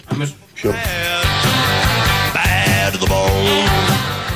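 A song plays loudly, with a steady beat, sung vocal melody and full instrumental backing starting after a brief pause at the beginning.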